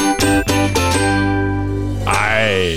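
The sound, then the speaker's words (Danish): A short, loud musical jingle used as a segment separator: a few punchy chord stabs followed by a sustained bright chord, then a rising synthetic swell near the end, with no voices. “til at hjælpe mig med den her lille skiller, vi plejer her imellem her, så prøv Sådan.”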